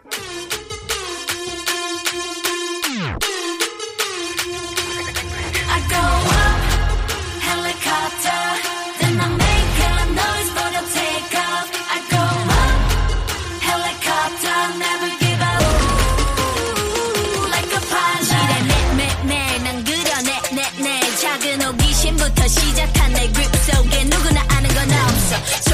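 A pop song intro plays loud and up close, with dense electronic synths, a rising sweep near the start, and heavy booming bass that drops in and out in sections, with no talking.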